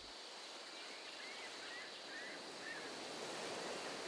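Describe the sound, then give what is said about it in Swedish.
Lake water laps and washes in a steady, continuous hiss of small waves, fairly loud, with no voices and no breaks. “När de kom fram till sjön la de båten i vattnet.”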